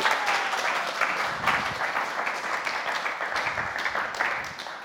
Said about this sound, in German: Äh, ich finde, wir können mal der Band und der Technik äh, einen riesen Applaus geben.